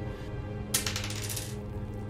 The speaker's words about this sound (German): Bitte einen W4 würfeln.